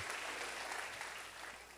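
A crowd claps steadily together, a dense wash of applause at moderate volume, tapering slightly toward the end, with no voices standing out.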